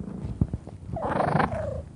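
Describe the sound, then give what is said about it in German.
A cat purrs in a steady, rumbling rhythm, with a brief higher meow-like trill rising over the purring midway through. No one speaks. “Und natürlich gehört auch Kitty Cat Carlotta dazu. Die schnurrt euch noch ein bisschen was vor.”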